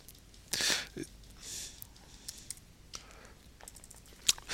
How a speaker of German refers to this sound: klickt schon die ganze Zeit und versucht hier Musik zu spielen.